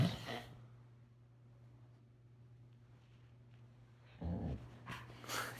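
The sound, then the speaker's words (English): A dog snores quietly, with a raspy snort at the start and another rough snoring breath near the end, separated by a stretch of near-silence over a low steady hum. “Good lord, our dog is snoring.”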